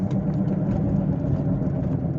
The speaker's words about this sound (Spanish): ¿Escuchan el pinche motor de mi carro? ¿Cómo se va a la verga? Espero que no se escuche mucho. Que ya está, está jodido mi, auto, la neta.